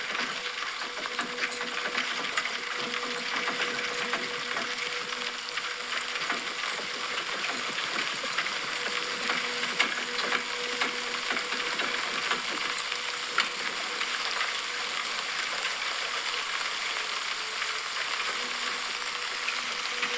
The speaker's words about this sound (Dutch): En je hoort natuurlijk volgens mij regen.